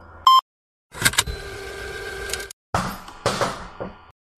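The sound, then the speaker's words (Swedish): A camera tripod slides off a chair and crashes onto the floor: a sharp knock, a loud ringing metallic clatter, then a few more rattling bumps as it settles. “Jag vill bara säga att om det hördes en jättestor smäll härifrån eh, ganska så nyligen i mitt eh, ljudspår så var det inte att jag dog utan mitt eh, kamerastativ gled av min stol och trillade i marken.”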